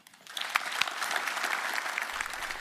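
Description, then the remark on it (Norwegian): An audience at Athea Community bursts into applause, building quickly from a few claps into a steady, dense wash of clapping that holds at an even, moderately loud level without any voices. “Og så ønsker jeg at dere gir en stor applaus”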